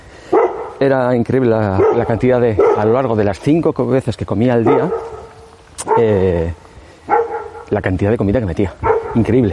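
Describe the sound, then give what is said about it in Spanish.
A dog barks and yips a few times beneath steady conversational speech, its short sharp calls partly buried by the talking voice. “Ese es el perro, aquí ya, ya sabéis.”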